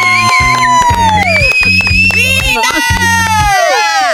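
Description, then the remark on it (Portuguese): A loud audience cheers and shouts continuously to welcome a guest on the radio programme Sem Limites, with sliding whistles rising and falling above the noise and a pulsing, rhythmic low thumping underneath throughout. “meu Deus, berros, assobios e gritos.”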